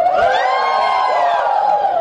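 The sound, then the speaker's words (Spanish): An audience group of people identifying as the 'yellow' personality type shouts and cheers together in one sustained, loud collective yell, voices blending into a bright, rising and falling roar that lasts a couple of seconds without pause. “¿Y cómo gritan los amarillos?”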